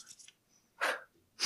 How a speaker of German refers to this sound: Hast du auf deinen Bauch geklatscht? ich hab meine Finger geknackt, Alter.